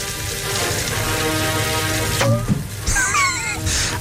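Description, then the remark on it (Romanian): Sparkling wine pours into a glass with a steady fizzing hiss, then a sharp tap and a few bright, ringing glassy tones near the end. “Astea sunt dopuri spumant care se toarnă în pahar.”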